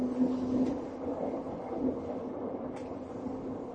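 A Tokyo Metro 7000 series subway train, running between Shin-kiba and Nerima and approaching Kotake-mukaihara station, rumbles steadily along, a low continuous roar with a faint tonal hum and a couple of brief higher clicks or squeaks from the wheels; no voices.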